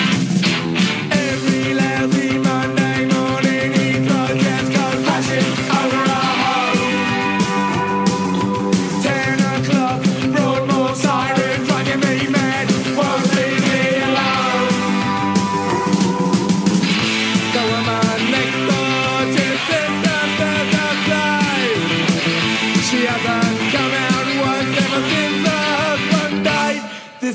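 A loud, driving late-1970s UK punk rock song plays continuously, with dense distorted guitars and pounding drums filling the mix at a steady, energetic pace, and no one talking over it.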